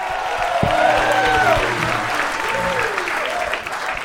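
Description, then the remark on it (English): A crowd applauds the comedians loudly and steadily for about four seconds, with whoops and cheers rising over the dense clapping. “Please, one more time, make some noise for each comedian.”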